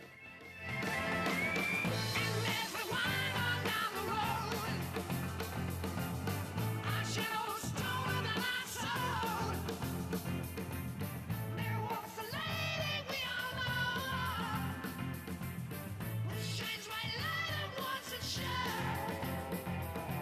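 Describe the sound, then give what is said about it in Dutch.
A classic rock song plays steadily in the background for the whole stretch, full-band and fairly loud, with driving drums and sustained guitar tones and no talking over it. “En ja, je weet eigenlijk al, je hoort het nu al op de achtergrond, je weet gelijk wel wel zeggen.”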